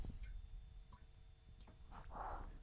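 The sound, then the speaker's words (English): Sparse water drips fall every half second or so in a very small, echoey toilet room, each plink faint and hollow over a low, steady background hum. “First of all, if we are in kind of hushed tones, and if you can hear a dripping in the background, do you hear this?”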